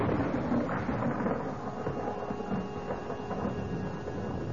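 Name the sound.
thunder rumbling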